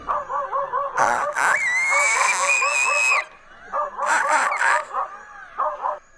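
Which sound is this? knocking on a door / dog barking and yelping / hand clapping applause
dog barking and yelping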